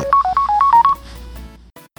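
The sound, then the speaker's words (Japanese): A phone rings with an incoming call, a quick electronic ringtone of bright beeping tones alternating between two pitches for about a second, loud, then cutting off into a faint low hum. “電話がね、かかってくるっていうね。”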